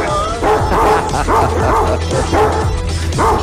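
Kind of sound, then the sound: animal, dog barking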